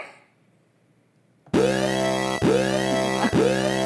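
After a moment of near silence, a loud electronic alarm signaling that the segment is about to end starts up, its bright buzzing tone swooping upward in repeated whoops roughly once a second, with no one talking over it.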